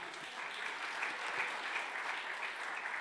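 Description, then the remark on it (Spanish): Loud, sustained applause from an audience, a dense wash of many hands clapping steadily throughout with no voices standing out. “El otro aplauso fuerte a papá.”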